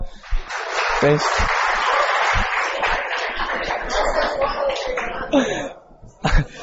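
An audience claps steadily for several seconds, a dense crackling wash of many hands with a few laughs and murmurs mixed in, thinning out near the end before a couple of sharper claps.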